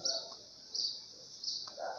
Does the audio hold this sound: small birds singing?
yes